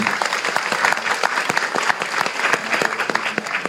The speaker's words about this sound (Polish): Nie ma z nami Magdy Kuc chyba, y, niestety, ale to chciałbym też o, poprosić Państwa o brawa dla Magdy Kuc, która jest autorką okładki.